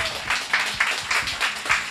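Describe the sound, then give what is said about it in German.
A crowd applauds at the Peacock Pub in Mattersburg, a dense wash of many hands clapping at steady volume, with faint surges in intensity throughout and no voices standing out. “Äh, ein Applaus fürs Fico.”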